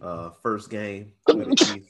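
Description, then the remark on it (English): A man says a few words, then lets out a single loud sneeze: a sharp breathy intake followed by a bright, explosive burst. “Bless you. Bless you.”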